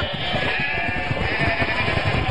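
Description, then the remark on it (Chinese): Sheep bleat continuously as they chase someone, a dense overlapping chorus of wavering, nasal cries filling the whole stretch at steady loudness, with no talking. “哎，你们不是绵羊吗？怎么跟斗牛一样啊？”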